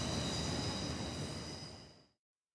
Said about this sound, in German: die S-Bahn. Die nehmen wir noch mit. Die nehmen wir noch mit.